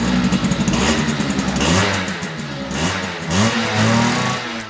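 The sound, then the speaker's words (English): A dirt bike engine revs repeatedly, its pitch rising and falling in loud, rasping bursts, with no voices present. “It can't be because of the noise, the one that I just shared with you.”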